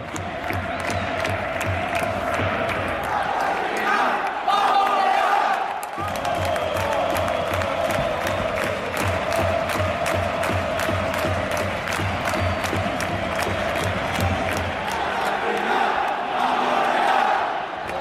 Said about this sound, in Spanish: La gente grita pidiendo ya final del partido y creo que ya lo van a conceder.